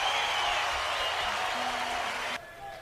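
An audience applauds in a steady, dense wash of clapping that holds at an even level, then cuts off abruptly near the end, leaving a quieter tail.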